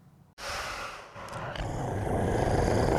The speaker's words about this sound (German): Du schnaufst so. Boah, wie realistisch dein Kostüm aussieht. Das ist doch einfach der Hammer. Ich könnte schwören, das Knurren wäre echt.